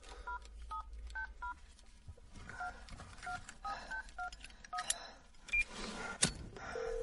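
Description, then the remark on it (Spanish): A person dials a number on a phone: a series of short keypad dialing tones beeps in quick, uneven bursts, clear over a low rumbling background with scattered rustles and clicks. “Marca un número y enciende el mechero.”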